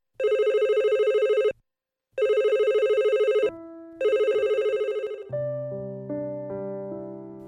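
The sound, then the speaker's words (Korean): A telephone rings with loud, rapid trilling bursts separated by short pauses, then gives way to a few sustained electronic tones stepping through a short melody. No one speaks. “그래서 전화를 받았는데 아이가 통화를 못하더라고요”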